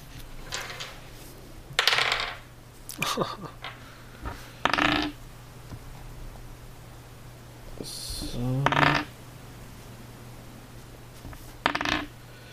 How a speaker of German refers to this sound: wir würfeln einmal Initiative.